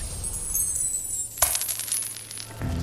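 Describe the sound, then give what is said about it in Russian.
Coins drop and clatter with bright metallic jingling, one sharp spill of coins followed by a scattered, ringing tumble that fades, clear with no voices. “Круто! монетки.”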